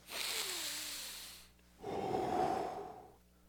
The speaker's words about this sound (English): the breath that you're breathing right now to give you life and exhaling to everyone else in the room.